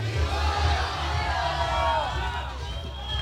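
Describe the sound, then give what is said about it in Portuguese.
A large crowd of artists at a peaceful street protest on the red carpet of a covered street shouts and chants together, many voices overlapping in a loud, steady roar that carries through the whole moment without a break. “Nós estamos ao vivo, UX FM, direto do tapete vermelho, rua coberta, nesse momento em que os artistas fazem essa manifestação pacífica.”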